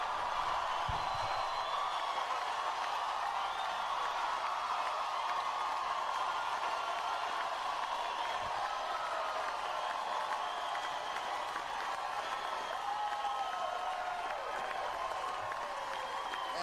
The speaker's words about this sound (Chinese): 来吧，让我们鼓掌，将军麦克弗林。